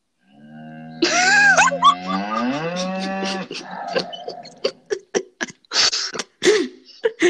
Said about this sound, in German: Alexa, wie macht die Kuh? Okay, hier ist Kuhlaute. Die Kuh macht.